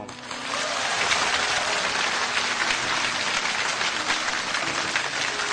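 A crowd breaks into applause that swells within the first half second, then holds as a steady, dense wash of clapping for several seconds, with no voices over it.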